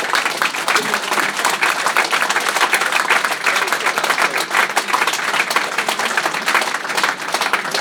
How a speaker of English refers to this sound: So what Marshall has done is nothing other than miraculous, and I think we need to give him a much bigger round of applause.